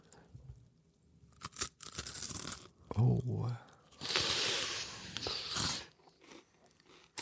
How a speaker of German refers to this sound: Warte, ich beiß nochmal ab.